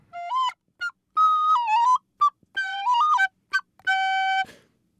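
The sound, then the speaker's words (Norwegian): A flute plays short melodic phrases of clear, breathy notes separated by brief pauses, ending on a long sustained tone that fades out. No voices are present. “Innimellom så tar jeg pause fra fløytespillingen”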